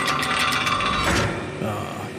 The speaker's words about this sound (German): Mal gleich die Tür auf hier.